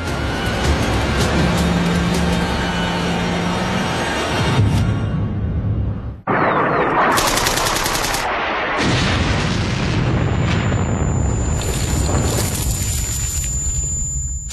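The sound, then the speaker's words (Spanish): An armored vehicle rumbles steadily along a road amid loud, dense German heavy artillery blasts and booms at the village of Bénouville. There is a brief break partway through and a thin high whine rising over the din later on. “Señor, viene un blindado por la carretera.”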